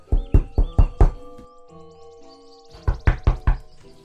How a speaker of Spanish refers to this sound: Cigarra, Saltamontes y Mariquita fueron a casa de Grillo para recogerlo y llevarlo hasta el lugar de la fiesta. Al llamar a la puerta,